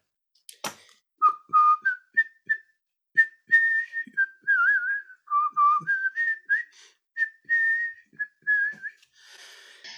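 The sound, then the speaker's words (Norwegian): A person whistles a melodic tune, clear sustained notes rising and falling in short phrases with brief pauses, ending with a soft breathy hiss. “Det er et eller annet med, med deg og plystring.”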